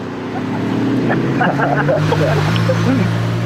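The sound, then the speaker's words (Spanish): A car engine hums steadily, its low drone shifting up in pitch as it revs and pulls away, with a man talking over it. “Qué bueno que arranca bonito.”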